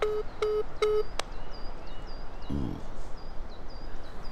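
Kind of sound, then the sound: signal or alarm, telephone line tone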